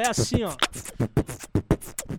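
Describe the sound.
A short spoken phrase leads into beatboxing, a voice mimicking drums with a steady run of punchy kick and snare bursts, fairly loud.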